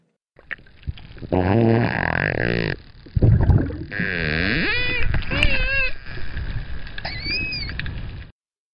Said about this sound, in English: That sounds a lot like a dolphin to me, Sarah. And I think this is a story about how both dolphins and whales squeal when they're happy.